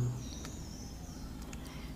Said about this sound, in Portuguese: Mais passarinhos do Pantanal.